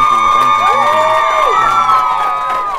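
A crowd cheers loudly, with whoops, shouts and applause blending into a steady roar that holds for a few seconds before easing slightly at the end.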